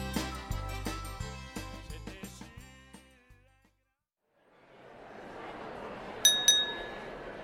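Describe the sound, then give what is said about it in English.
A short musical phrase fades to silence, then a soft crowd murmur rises and two bright glass clinks ring out in quick succession as glasses are touched together in a toast. “Join me for a toast. Raise your glass and let us consider the meaning behind today's words.”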